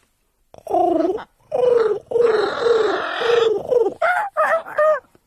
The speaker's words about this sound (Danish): Det er en papegøje